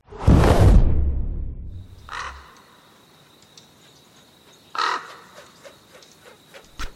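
A loud rushing whoosh opens, then two harsh crow caws ring out a couple of seconds apart, with a faint high bird tone and scattered chirps in the background.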